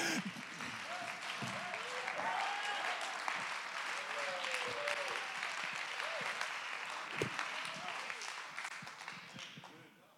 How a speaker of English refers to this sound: Everybody clap your hand. Don't let sickness stop you.